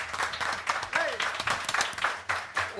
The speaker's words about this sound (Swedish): Och han drar igång applåden själv.